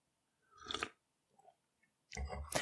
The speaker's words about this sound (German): Ach, ich muss mal schlucken.